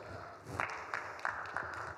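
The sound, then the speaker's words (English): A group of people in a church teaching on discernment clap for themselves after answering a question correctly, a steady wash of applause that swells after a brief quieter start, with a few sharper, louder claps standing out every third of a second or so. “Oh, clap for yourselves.”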